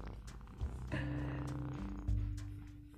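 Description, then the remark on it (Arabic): A cat snoring softly up close, a steady low rumbling purr-like breath that swells in two longer waves, with no talking over it. “إذا تسمع واحد يشخر مشي أنا القط يشخر قد يشخر بجانبي”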